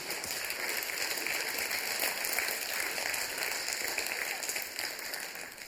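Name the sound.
audience applause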